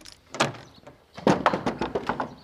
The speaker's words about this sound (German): Die Tür öffnet